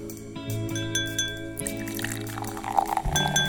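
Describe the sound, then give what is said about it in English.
Champagne pouring with a bright fizzing hiss after a sudden pop-like onset, set over sustained background music, with a few clinks near the end. “But first, let's pop the cork on this bubbly little show.”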